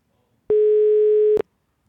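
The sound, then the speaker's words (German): One burst of a telephone ringing tone as a call is placed a second time after hanging up: a steady, fairly low electronic hum, loud and unbroken for just under a second, then cut off, with silence around it. “Es klingelt wieder.”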